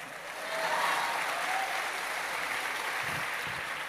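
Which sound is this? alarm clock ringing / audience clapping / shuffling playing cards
audience clapping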